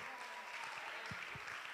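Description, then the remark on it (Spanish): Sustained audience applause, a dense steady patter of many hands clapping together, with no voices standing out. “Un aplauso para ellos.”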